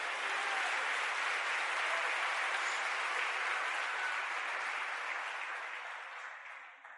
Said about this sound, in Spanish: Cuando le da un aplauso fuerte al Señor, es el pensamiento.